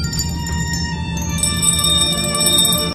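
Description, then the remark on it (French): Bells ring together in a sustained, shimmering wash of overlapping tones, with a fresh set of strikes about midway that brightens the sound before it cuts off abruptly. No voices. “On se souvient tous de votre éblouissante prestation des sélections avec votre manière si poétique de manier les cloches.”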